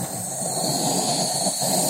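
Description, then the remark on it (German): A beekeeper's smoker being fired up on a rooftop by the beehives, giving off a steady, airy hiss with a low rumbling roar underneath, fairly loud and continuous for about two seconds with no talking. “Wir heizen mal das Rauchfass ein bisschen an, dass man die Bienen beruhigt.”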